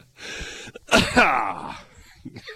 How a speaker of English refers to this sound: sorry, sorry for the cough there, y'all.